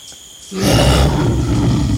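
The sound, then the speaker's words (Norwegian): A jaguar lets out a deep, rumbling roar at a beach at nightfall that starts abruptly and sustains loudly for over a second, with a faint high chorus of birds, grasshoppers and frogs in the background. “Så hører jeg også min første Jaguar, da.”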